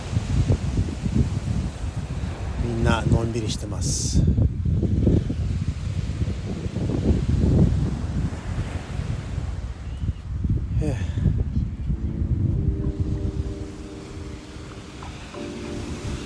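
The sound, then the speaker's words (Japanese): Steady seaside wind at a beach on a hot 35-degree October evening rushes across the microphone, a broad low roar that holds almost the whole time, with people talking briefly over it and chatter mixed in. Yachts are out and the sun is strong. “ヨットもいるし差しは強いんですけど風がもう爽やかで気持ちいいです最高”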